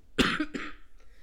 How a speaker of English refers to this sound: before I start coughing again